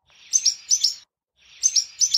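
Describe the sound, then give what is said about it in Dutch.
Two bursts of sharp, high bird notes, each a quick pair of bright double chirps, separated by a short silence; a barn swallow's alarm call, clear and alone with no talking. “De eerste twee noten die je hoort toch heel duidelijk de alarm van de boerenzwaluw.”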